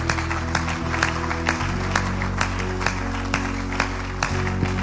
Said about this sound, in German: Können wir einmal klatschen für all die, die gleich aufstehen werden? Danke.